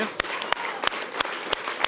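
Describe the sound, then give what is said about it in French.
An audience at a Bistro Liberté event applauds a speaker from the student union La Cocarde étudiante steadily for two seconds, a dense wash of clapping with a few sharper, louder individual claps popping out at a fairly regular pace. “Voilà, on peut l'applaudir.”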